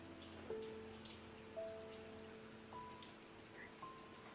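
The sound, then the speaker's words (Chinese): Light rain patters softly in a steady, faint hiss, with a few slightly louder drops standing out. Gentle sustained tones hum quietly underneath, and no one speaks. “在小小的雨声中，瑟缩不宁。”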